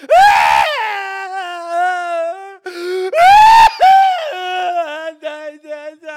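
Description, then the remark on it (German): A voice imitates the loud wailing screams of mourners at a death in two long bursts, each starting with a harsh, noisy shriek that rises in pitch, then trails into a quavering, falling moan with short sobbing breaks. “das war damals schon so irgendwie wie so ein Wettbewerb, bei welchem Todesfall kann man lauter schreien.”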